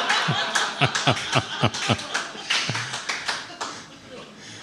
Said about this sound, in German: Michi, das sind deine Lacher, dein Applaus, falls du das hörst.